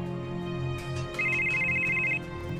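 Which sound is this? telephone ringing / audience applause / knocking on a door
telephone ringing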